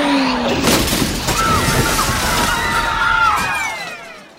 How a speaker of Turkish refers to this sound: Pardon pardon arkadaşlar. Camı çok iyi temizlemişsiniz. Göremedim direkt camdan içeri girdim pardon.